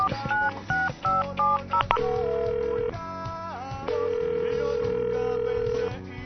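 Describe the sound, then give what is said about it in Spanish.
A quick run of touch-tone keypad beeps dials a number, followed by two long, steady ringback tones as a technical team's phone call to a guest goes through. Clear, with no voices. “que nos empiece a comunicar con el buen Memo, que empiecen a sonar los teléfonos”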